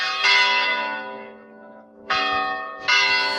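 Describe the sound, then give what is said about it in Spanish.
Church bells ring out in three loud, resonant strikes, each with a sharp onset and a long shimmering decay that fades before the next peal lands. No voices are present. “Suenan las campanas”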